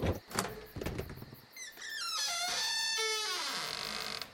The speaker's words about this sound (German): Ein gezielter Hieb. Und das Schloss fiel zerbrochen zu Boden. Vorsichtig öffnete der Eisenmann die Tür.